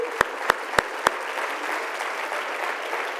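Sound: audience applause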